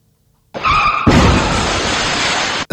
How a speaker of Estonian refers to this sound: peaaegu hobune, ütleme hobune, kes jäi auto alla kahjuks.